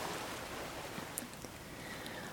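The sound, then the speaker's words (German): A steady wash of ocean surf fills the background, a soft continuous rushing of water with faint splashy detail and no distinct swell or break within the short stretch. “Wie die Wellen im Hintergrund rein und raus.”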